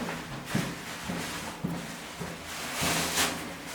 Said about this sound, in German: ihr hört es schon rascheln, denn die Silvia war so lieb und hat uns so kleine, schicke Müllbeutelchen für die Füße